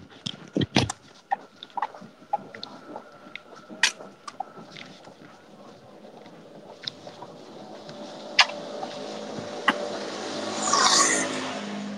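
A car passes along a street, its engine and tire noise swelling steadily and peaking near the end, after a stretch of scattered knocks and clicks.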